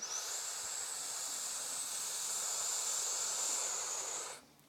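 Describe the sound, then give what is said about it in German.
A long, steady airy hiss of a deep inhalation into the lowest part of the lungs and into the sides, drawn in continuously for about four seconds at even loudness before stopping abruptly. No talking. “Fange jetzt aber in den untersten Teil der Lunge zum Einatmen an können weiter einatmen in die Seite.”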